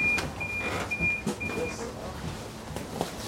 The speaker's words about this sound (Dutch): we, we zitten ondertussen op de tram. Hoe is die ervaring eigenlijk voor jou, het openbaar vervoer?